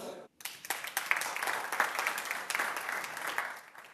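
A steady round of applause for a student's work in the student council, many hands clapping in a dense, crackling wash that holds fairly even for several seconds after a brief gap at the start.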